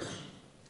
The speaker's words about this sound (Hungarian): Tudod, egészségedre. Vagy ez az volt, vagy csak úgy köhögtél? Vagy... Mi volt ez?